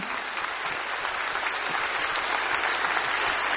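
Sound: audience applauding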